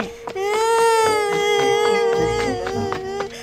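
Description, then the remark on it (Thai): A boy cries loudly after being struck with a stick by a monk, in one long, unbroken wail, high and slightly wavering in pitch, sustained for about three seconds with no talking. “เด็กได้ร้องไห้โฮ และวิ่งกลับบ้านไปหาแม่”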